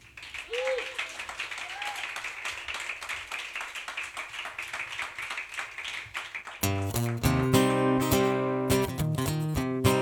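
An audience applauds to welcome a guest, with dense, steady clapping for about six seconds. Then loud music with strong bass and tonal chords abruptly takes over.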